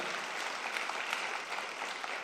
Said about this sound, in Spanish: Alguien puede decir amén. Alguien le puede dar un aplauso al Señor por lo que está haciendo y por lo que va a ser en tu vida.